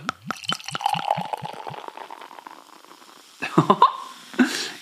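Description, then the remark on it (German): Pale ale glugs from a bottle into a glass in a quick run of bubbling pulses, settling into a steady fizzing pour, then a few clinks and soft knocks. “gieß das mal ins Glas. Okay, wir gießen ein, Achtung.”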